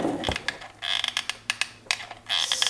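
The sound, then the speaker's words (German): Handling noises of a broken whisk being fiddled with and glued: a string of sharp, irregular clicks, taps and light scraping, with no one talking. “Ich äh, versuche gerade parallel ähm, den Schneebesen zu kleben.”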